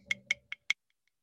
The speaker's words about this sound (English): That's the sound of an Oreo hitting a mason jar because daddy's going old school with some Baileys on ice.